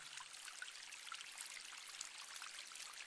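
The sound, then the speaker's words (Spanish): Steady rushing water from a waterfall, a dense, even hiss that never lets up, heard alone at a moderate level with no voices. “observa cómo el agua fluye sin cesar, agitándose en ocasiones y luego volviendo a su serenidad”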